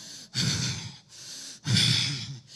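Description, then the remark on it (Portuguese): A person imitates angry, heavy breathing with two forceful, noisy breaths pushed through the nose, each lasting under a second with a short pause between them. Fairly loud, with no speech. “eu imagino ele respirando com raiva, ameaçando os discípulos de Jesus”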